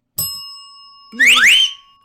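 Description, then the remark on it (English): A news bell is struck once and rings out with a bright, sustained metallic tone. Midway through the ring, a short, loud swooping sound rises twice in pitch before everything fades. “But first, we have to ring the news bell.”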